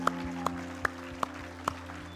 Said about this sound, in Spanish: Amén, amén, amén. un aplauso, Señor.